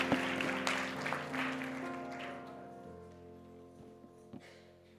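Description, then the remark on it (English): A seated church audience at an evening service claps, filling the first couple of seconds as a dense patter, then thinning and fading while a sustained keyboard-like tone carries on underneath. “Let's clap our hands as we're seated across the room tonight.”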